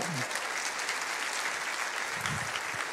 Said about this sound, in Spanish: Dele ese aplauso al Señor y créalo.